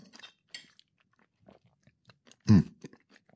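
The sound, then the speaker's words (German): Chewing of acidic pieces of lemon, melon and peach taken into the mouth as a tasting experiment: soft, wet mouth sounds in irregular bursts, with one louder squelchy bite partway through, no talking. “Ich habe jetzt hier ein Stück Zitrone ähm, und ich habe hier ein Stück Melone und ein Stück ähm, Pfirsich. Das sind alles so Säure. Mach ich selber, ich nehme das mal in den Mund.”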